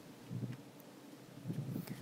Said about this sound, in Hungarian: kérünk, hogy küld el a Te szent lelkedet, és ahogy itt most fúj a szél, úgy munkálj a mi életünkben is újat.